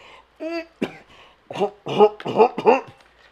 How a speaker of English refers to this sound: It's funny because like my allergies really started to fuck with me when I'm over there. So I have a mask on and I'm over there trying to stifle coughs, but also keeping six feet away from everyone.